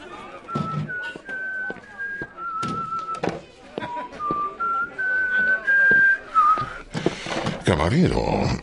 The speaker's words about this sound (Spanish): Me preguntaba quién tendría la costumbre de ir chiflando.